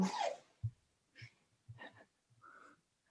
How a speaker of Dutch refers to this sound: Wacht even, ik hoor een kat hoesten. Gaat het goed met de kat? ja. Of een haarbal of zo.